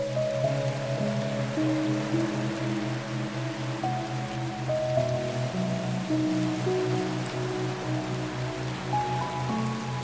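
A steady, even wash of Atlantic Ocean surf rolls on without pause, heard beneath soft, sustained musical tones that slowly shift pitch.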